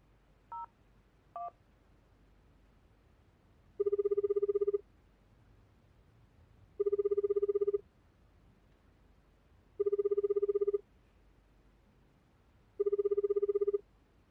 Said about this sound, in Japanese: ああこのままじゃダメだよし今から電話して出なかったら連絡先を消す